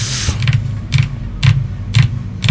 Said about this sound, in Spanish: Y las voy a poner al micrófono. Oyes mis uñas, ¿cómo te atreves a decir eso?